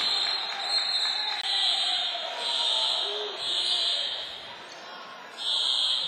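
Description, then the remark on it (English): A fire alarm blares in long, shrill, repeating bursts of high tone, loud and steady, over a low murmur of crowd noise in a gym during a basketball game, stopping play. “And the fire alarm's going off.”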